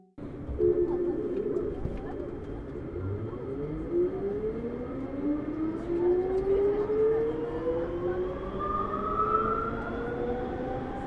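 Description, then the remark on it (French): An automated metro train in Lille, France, pulls away, its electric motors whining in steadily rising tones over a constant rolling rumble, with no voices. “J'adore le bruit du métro lillois.”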